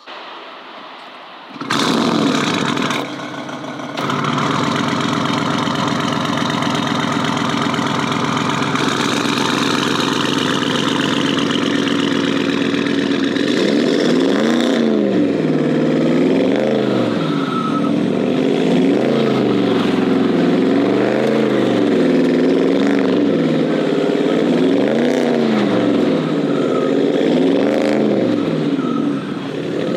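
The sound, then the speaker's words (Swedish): A car engine starts up and settles into a deep, steady idle, then is revved repeatedly in rhythmic swells, each rise and fall of the engine note loud and clear with no talking. “Ja, den lät, jag måste säga när du körde in här, jag bara, shit vad bra den lät.”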